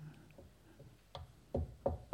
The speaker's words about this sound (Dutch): En toen klopt hij aan de deur.